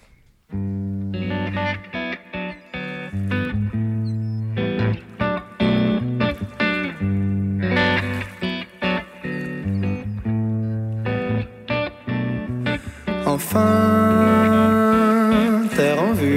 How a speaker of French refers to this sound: on fait une pause musicale, on écoute le dernier titre de …, …